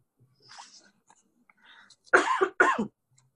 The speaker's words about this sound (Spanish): Sí, tengo un poquito de, tos. No te preocupes.